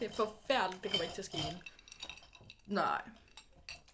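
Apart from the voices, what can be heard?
ice cubes clinking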